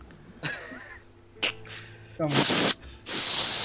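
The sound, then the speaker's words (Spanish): A voice imitates a soda can fizzing and foaming, with breathy hissing bursts that grow longer and louder, ending in a sustained loud spray-like hiss. “Empieza a burbujear y a salir espuma.”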